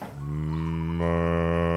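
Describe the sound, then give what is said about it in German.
A single long, low moo from a cow on a farm in Neukirchen where a farmer is milking cows, steady and resonant, rising slightly in strength toward the end, with no one talking. “der Müller melkt wieder Kühe. Hörst du das?”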